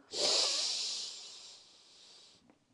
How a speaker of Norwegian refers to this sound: Skal vi gjøre det én siste gang? Ok. Pust godt inn med nesa,